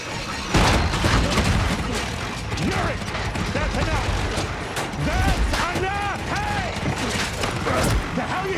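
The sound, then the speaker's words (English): A straining helicopter engine sputters and rattles loudly and continuously, with grinding, creaking metal and clattering bursts, as if the machine is shaking itself apart. “So I was kind of finding ways to make the engine sound like it was even about to completely come undone.”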